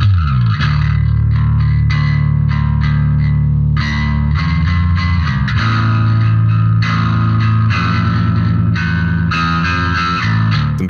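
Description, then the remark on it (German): The bridge of a song: loud, heavily distorted electric guitar chords strike in a steady driving rhythm over a deep, sustained bass line, with a plucked guitar figure layered on top and no voices. “hast dann die ja. fetten Akkorde dazu gespielt und die, und die fette gezupfte Gitarre dazu.”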